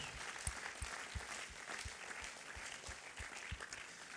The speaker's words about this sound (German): Und wir geben doch ihm so einen riesen Welcome-Applaus nochmal heute. Das ist so genial.